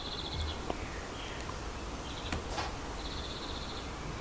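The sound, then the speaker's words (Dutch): Faint birds chirp in short, rapid trills that repeat several times over a steady outdoor hiss, with a few sharper calls in between and no one speaking, at a holiday park in Doorn. “Maar het zijn deze keer geen kinderen die hinderen, maar het zijn vogels.”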